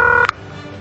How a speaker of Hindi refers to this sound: इसी बीच नुपुर ने हेमराज के मोबाइल पर फोन किया घंटी बजते ही किसी ने फोन उठाया और फौरन उसे काट दिया